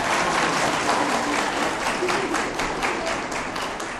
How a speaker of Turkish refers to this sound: İşte ama alkışlamaya siz alışmayın. Ashab-ı kiram sevindiğinde tekbir getirirlerdi. Boş ver alkışlamayın siz dediği bravo çok güzel. Ama aslında e, alkışladığınız köylülüğünü onaylamış oldunuz bunu siz.